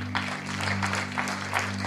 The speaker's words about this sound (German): Wow, lass uns Gott Ehre mit einem Applaus.